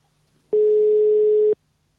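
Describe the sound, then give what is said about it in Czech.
A single steady telephone ringback tone sounds for about a second, clear, as a call is placed to a work phone, then cuts off into silence with no one picking up. “Jestli to vezme.”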